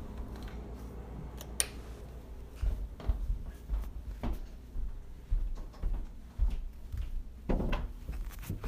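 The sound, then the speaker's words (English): Handling noises as a ukulele is packed into its case: soft thumps, rustling and several sharp clicks of latches snapping shut, scattered irregularly with no talking. “You want me to put this ukulele away for you? I'll just go ahead and put it in its case.”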